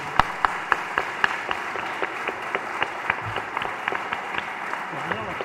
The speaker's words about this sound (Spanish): Bueno, yo propongo un aplauso para los dos expositores.